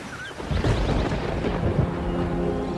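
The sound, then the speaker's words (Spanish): Ocean waves wash in with a steady roar while thunder rumbles low, the sound swelling after a quiet start and staying dense throughout, with no voices. “Una tormenta se acercaba.”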